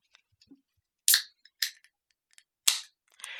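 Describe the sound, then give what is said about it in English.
A tall boy can of Hamm's beer is cracked open: a few sharp metallic snaps and clicks, followed by a short burst of fizzing hiss at the end. Quiet, with no talking. “Uh, I went out and got something special, so I'll be drinking a Hamm's tonight. Tall boy, though.”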